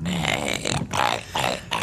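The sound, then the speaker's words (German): A dog growls loudly in a few rough, rumbling surges, each pausing briefly before the next, with no talking over it. “Lieber nie wieder knurren, als dieses ekelhafte Zeug zu gurgeln?”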